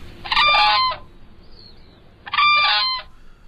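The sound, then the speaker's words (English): Two loud, bugling calls of a whooping crane, an endangered bird and one of just two crane species in North America, ring out, each lasting under a second and separated by a brief pause, over a faint, steady outdoor background. “It's the whooping crane, an endangered bird one of just two crane species in North America, along with the sandhill crane.”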